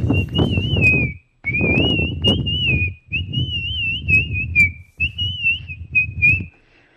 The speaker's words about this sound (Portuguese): você assobiou e depois você gemeu, mano.